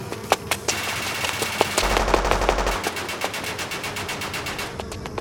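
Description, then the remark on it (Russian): Rapid machine-gun fire rattles off in quick, sharp bursts, a dense string of loud cracks with a low booming rumble swelling briefly in the middle before the shots thin out. “Ударив в воздухе ногой, кое-как уворачиваюсь от слишком удачной очереди.”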